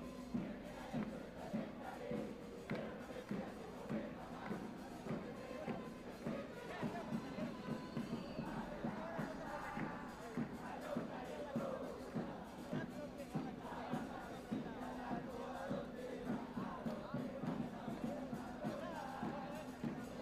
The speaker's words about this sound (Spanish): Ya se escuchan las porras en el Estadio de la Pedrera. Ya se escucha el latir de un corazón apasionado por el albo. Ya se hace sentir la afición apoyando